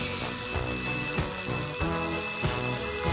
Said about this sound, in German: Wenn der Wecker schellt